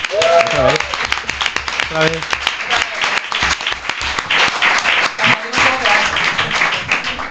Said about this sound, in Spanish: Recibimos con este fuerte aplauso a Goyo Jiménez.